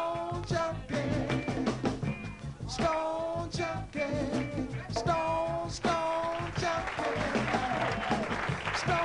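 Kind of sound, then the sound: crowd, applause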